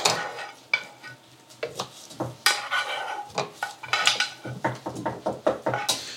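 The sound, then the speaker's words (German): A utensil scrapes repeatedly across a frying pan where sauce is sticking, short rough strokes in an uneven rhythm, with a faint sizzle underneath. Fairly loud, with no talking. “Die klebt so richtig an der Pfanne.”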